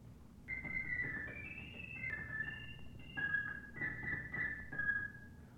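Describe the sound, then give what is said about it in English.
Organist Helen Westbrook plays a short, high, warbling run of sustained organ notes imitating the song of the purple finch, the pitches stepping up and down over a low, steady hum, with no talking. “Our organist, Helen Westbrook, will play a few notes of each tune sung by a certain bird.”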